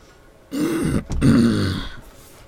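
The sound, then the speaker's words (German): A voice imitates a hoarse, raspy cough: two rough, throaty bursts with a brief pause between them, fairly loud, with no other talking. “Und du hörst ein heiseres Husten.”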